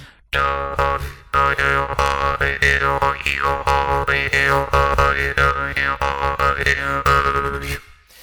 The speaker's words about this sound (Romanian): Sunt tot felul de nume amuzante pentru drâmbă